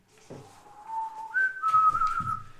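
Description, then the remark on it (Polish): A person whistles a short tune, holding a few clear sustained notes that step up in pitch, with soft low thumps and rustling underneath. “Cały czas pogwizduję od czasu do czasu”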